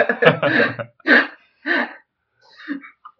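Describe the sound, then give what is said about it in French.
A yawn breaking into several breathy, voiced bursts: a drawn-out first exhale, then two shorter puffs and a few faint, higher-pitched trailing sounds, with no speech. “je finissais mon bâillement.”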